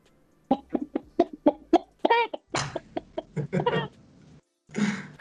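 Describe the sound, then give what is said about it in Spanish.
A person imitates a chicken with a quick series of sharp, rhythmic clucks, then a few longer squawking calls, fairly loud, ending with a brief breathy burst. “Se hace la gallina.”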